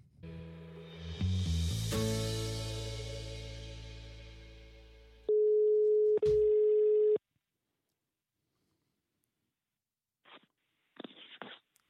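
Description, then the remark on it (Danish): A loud, steady telephone ringing tone sounds for about two seconds as a call is placed, after a swelling burst of sound, followed by silence and a few brief, fainter bursts near the end. “Jeg ringer, fordi du har jo været deltaget i radiosvalget”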